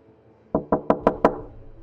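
Five firm knocks on a door in a quick, even rhythm, each a sharp thud with a short ring-off, sounding alone with no voices.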